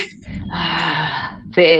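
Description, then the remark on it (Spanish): A man imitates the drawn-out, straining grunt of someone exercising at the gym, like a bellowing bull: a loud bellowing groan held for almost a second, with a brief sharper vocal burst right after it. “como toro bramando.”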